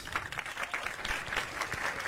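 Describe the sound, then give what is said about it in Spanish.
A steady wash of applause from a small group, dense overlapping claps sustained evenly throughout at moderate loudness, with no voices standing out. “Pues, hey, aplausos.”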